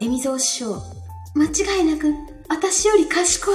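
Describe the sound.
A single voice speaks into a microphone with its echo effect turned down to half, each phrase trailing off into a lingering, reverberant tail during the short pauses.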